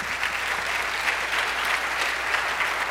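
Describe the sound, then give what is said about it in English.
A church audience applauds steadily for two newly baptized people, a dense wash of many hands clapping at an even, sustained loudness with no voices standing out. “I'm sure we'll get another chance to applaud you tonight.”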